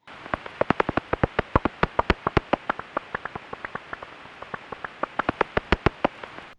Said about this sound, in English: that was the sound of uh, common pipistrelle, I think